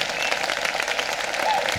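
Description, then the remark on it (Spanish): Steady applause from a group for the doctors on Doctors' Day, dense crackling claps at an even loudness filling the whole stretch without pauses or voices standing out. “Ahí Ahí está aplauso para los médicos.”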